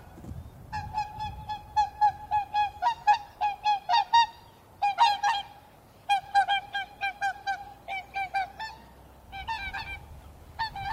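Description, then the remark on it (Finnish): A flock of swans flies straight toward the listener and past, trumpeting loudly in rapid, overlapping honks that come in clustered bursts with short pauses between, tapering off toward the end. “Nyt tulee joutsenet, joutsenet hienosti tulee ohi.”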